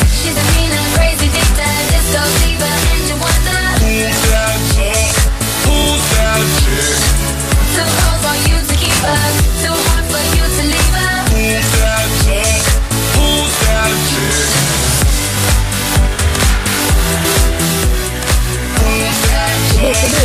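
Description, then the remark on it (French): A loud, dense classic dance-pop track from a radio playlist plays continuously, with a steady pounding beat, bright synths and full bass filling the whole stretch at constant volume, no one talking over it. “Alors, ça là, c'est le son de la playlist Rome Radio”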